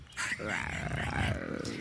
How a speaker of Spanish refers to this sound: Al sonido del rifle, la tigresa se volvió hacia los arbustos. Se escondió. Luego hubo gruñidos.